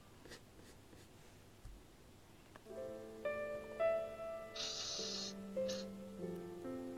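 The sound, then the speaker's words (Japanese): Quiet, repeated scratching of a white cat's claws raking a window screen from the other side of the window, with no clear meow and steady musical tones coming in partway through. “カーテンを開けると窓の向こう側で綺麗な白猫が鳴きながらカリカリと網戸を引っかいていた”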